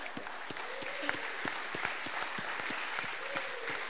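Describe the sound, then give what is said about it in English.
Steady applause from an audience giving God a round of applause, many hands clapping in a dense, continuous patter at even loudness, with a few sharper individual claps and faint voices mixed in. “I just can we just stop and give God a round of applause for what he's doing?”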